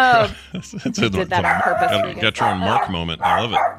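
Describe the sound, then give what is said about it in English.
A female dog barks and yips in short bursts throughout, mixed in with people chatting and laughing. “oh, it's his dog when she's barking.”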